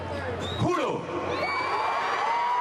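Thousands cheer at a rally in Venezuela as Juan Guaido declares himself interim president, a dense, steady roar with shouts and whistle-like tones rising above it. The noise stays loud and continuous throughout.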